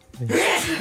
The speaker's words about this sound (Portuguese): Vou espirrar. É Olha é lá! Estava a evitar, não consegui.